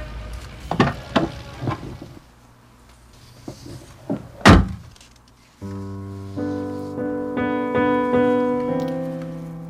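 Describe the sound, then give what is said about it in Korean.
A few quick clunks and knocks lead up to one loud car door slamming shut as a man gets out of the car, then a steady layered tone, like music, swells and continues to the end. “차에서 내리면 다시는 안 만나겠다고 말했건만 그 사람은 내렸고 차문이 쾅 하고 닫히는 순간 그를 향한 제 마음의 문도 닫아버렸습니다.”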